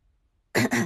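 One abrupt, loud cough bursts out after a moment of silence, harsh and breathy with a brief catch in the middle, like a deliberate throat-clearing cough. No one speaks.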